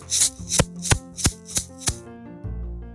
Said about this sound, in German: Ich habe eine kleine Rassel für euch.